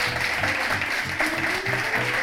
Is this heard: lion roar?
no